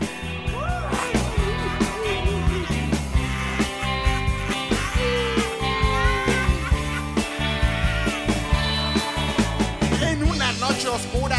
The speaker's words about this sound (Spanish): Entonces, nada, escuchemos este rock surf